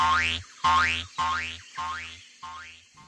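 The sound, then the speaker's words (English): Five springy cartoon boings as Kangaroo bounces behind, in front of, around and over Elmer, in a steady bouncing rhythm, each a wobbling pitch sweep rising then falling, growing slightly fainter with each bounce, with no voices. “Elmer set off at a steady pace, while Kangaroo bounced behind him, in front of him, around him, and even over him.”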